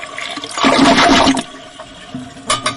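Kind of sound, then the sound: household object, toilet flushing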